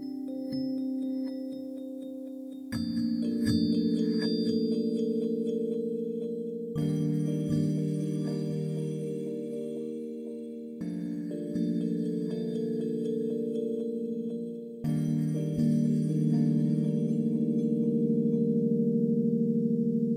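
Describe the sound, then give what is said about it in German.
A sustained synthesizer pad from a preset patch with echo effects plays shifting held chords with shimmering, echoing high overtones, changing every few seconds in blocks of steady tone, fairly loud and with no voices. “Und ich spiele einfach mal noch ein anderes Patch an und wähle jetzt mal die Celestial Echos.”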